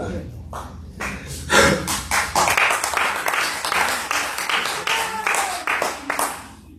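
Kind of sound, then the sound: crowd, audience applause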